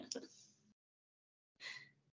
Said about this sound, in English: oh big puppy yawn no he's had a long day long day of sleeping